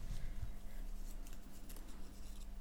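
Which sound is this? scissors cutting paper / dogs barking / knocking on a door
scissors cutting paper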